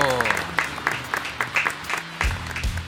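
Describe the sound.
A short burst of lively applause from a small group for a contributor at the close of their section of a show, brisk overlapping claps, with a voice murmuring underneath before a low thump near the end.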